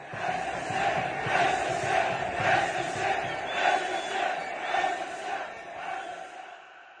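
A large stadium crowd at a football ground in Morocco chants a protest slogan in unison, voices rising and falling in a steady rhythmic pulse about once a second, loud and reverberant, fading slightly at the end.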